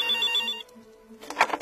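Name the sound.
telephone ringing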